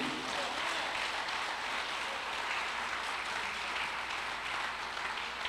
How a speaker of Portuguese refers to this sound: Dá um aplauso a Jesus aí.